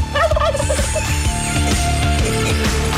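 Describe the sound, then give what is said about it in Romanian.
A voice imitates a turkey's gobble with a quick, loud warbling burst near the start, set over a steady, thumping music bed that carries on to the end. “E cât de cât impecabil ce zici care poate imita un curcan este ursul din județul Harghita.”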